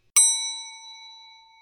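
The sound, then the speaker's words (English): A single elevator arrival ding: one bright, clear bell-like chime that strikes sharply and then rings out in a long, slowly fading tone, with no voices. “I think Silk is just riding up the elevator, listening to the elevator music.”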